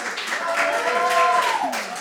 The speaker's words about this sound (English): And another round for applause for our other amazing performers tonight